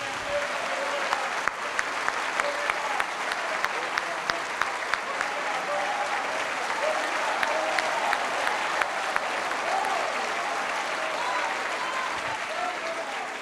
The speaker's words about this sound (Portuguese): Quem está sentindo a presença do Senhor aqui? Vamos dar mais uma salva de palmas.